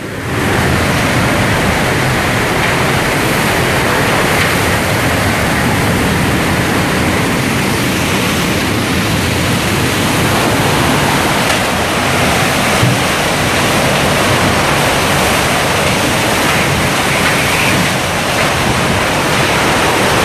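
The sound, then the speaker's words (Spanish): Hurricane winds roar without pause through a side terrace of a house, a dense, loud rushing noise that surges slightly but never lets up across the whole stretch, with no voices. “O sea, yo estoy en un área segura, pero escuchen esa furia de esos vientos del huracán.”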